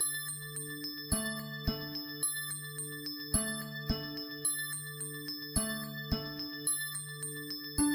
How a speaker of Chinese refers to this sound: 那我们来听一听元素振动频率形成的琴键所演奏出的曲子是什么样子的。注意啊，这是氧气分子的声音，当当。